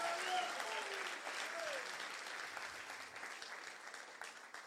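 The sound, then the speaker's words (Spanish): A crowd claps steadily and loudly for several seconds, giving applause to Jesus, a dense wash of overlapping hand claps with a few faint voices and brief tonal calls mixed in, easing slightly toward the end. “Si usted quiere esa paz de Dios, denle un aplauso fuerte a Jesús.”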